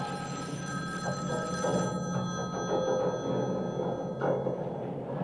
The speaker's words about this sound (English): Your phone's ringing.